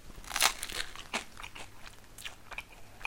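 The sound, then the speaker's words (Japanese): Crisp crunching of hard toasted baguette being chewed, with several sharp bursts in an uneven rhythm over about three seconds and no talking. “それなりにこの咀嚼時間がかかるから ちょっと放送事故みたいになるね喋りが止まってる時間が長いですよねいつもよりでもこの食べてる咀嚼音はいい音するよね”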